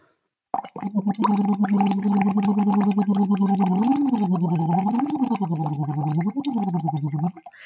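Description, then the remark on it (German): A person voices a steady 'oo' hum at a comfortable pitch through a hose whose end sits in water, with continuous rapid bubbling; the pitch holds, then swoops up and down in a few slow glides. Fairly loud, no speech. “Und was man dann macht, ist, ähm, man macht ein U in den Schlauch auf einer gemütlichen Stimmlage.”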